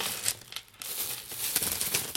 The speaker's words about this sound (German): Mal, diese Knistertüte ist aber nicht original.